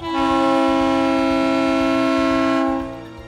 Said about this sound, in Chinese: 呜，蹦起蹦起，发出长长的汽笛声，为自己鼓舞，也向所有的人道谢。